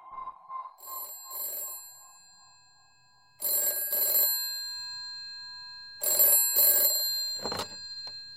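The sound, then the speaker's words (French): A telephone bell rings in several bright, metallic bursts separated by short pauses, loud, with no voices, ending in a quick final jangle; the phone rings in Philadelphia in 1975 and is answered by a woman. “… répond au téléphone.”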